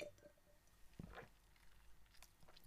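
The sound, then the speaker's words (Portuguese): Someone takes a last sip of port wine to finish the glass: quiet wet mouth noises and a soft gulp or two, with a faint liquid click near the end and no talking. “só aquele golinho de Porto para matar o copo.”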